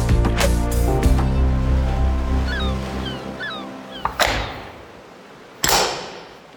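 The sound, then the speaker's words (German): A heavy prison cell door at the Polizeimuseum Bremerhaven: low rumbling and scraping, a few short high squeaks from the hinges, then two loud, sharp metallic slams a moment apart, each ringing out briefly. “Und so klingt die Zellentür im Polizeimuseum Bremerhaven.”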